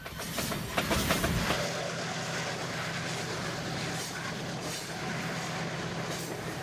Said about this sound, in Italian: Nella regione est dell'Amazzonia brasiliana un convoglio scuote la vita di migliaia di persone. È il treno di Carajás. Sono i vagoni carichi di una delle più grandi compagnie minerarie del mondo, la Brasilia Navale.